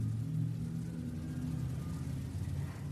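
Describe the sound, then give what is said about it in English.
A passing truck's engine rumbles low and steady, a deep droning hum that holds for a few seconds and eases slightly at the end as the sound fades away, with no voices. “Sort of like, oh yeah, that, that truck, you could hear the car, and then the sound fades away, and you can kind of rest into that space too.”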